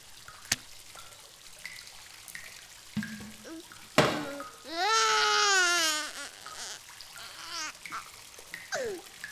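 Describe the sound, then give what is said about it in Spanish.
A baby stuck in a toilet, half its face submerged in the water, babbles and coos with a gurgling, watery quality, rising to one loud sustained wail in the middle, with sparse short vocal bursts and a few sharp knocks around it. “Un bebé atascado en la letrina, sumergido a medio rostro pero inerte.”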